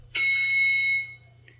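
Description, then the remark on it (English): A single bright elevator ding sound effect played from a soundboard rings out clearly, holding its metallic shimmer for about a second before fading, with a faint low hum underneath and no voices. “I downloaded a soundboard just so I could have an elevator sound effect.”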